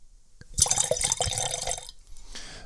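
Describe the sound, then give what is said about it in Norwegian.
Wine glugs into a glass in a burst of bubbly, splashing pours lasting over a second, with gurgling pulses, followed by a fainter trickle as the pour tapers off. “Skal jeg helle opp litt?”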